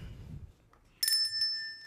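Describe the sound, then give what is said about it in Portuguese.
A single bright notification bell ding, the subscription bell sound effect of a channel, after a moment of low, muffled rumble, its clear metallic tone ringing loud before slowly fading. “E aproveita que você vai se inscrever no canal, ativa o sininho.”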